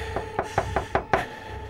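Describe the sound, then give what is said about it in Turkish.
A quick series of about six firm knocks on a door by police arriving for a raid, evenly spaced, with a steady low hum in the background and no voices. “Polisler geldi galiba. Yine baskına geldiler. Açın! Polis! Arama yapacağız.”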